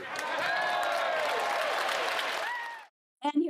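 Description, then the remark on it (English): Members of parliament stand up, cheering and applauding together after a motion is declared carried in the House, a loud, dense wash of clapping with raised voices riding over it for about three seconds before it cuts off and someone starts speaking. “you can see all of the members of parliament standing up, cheering.”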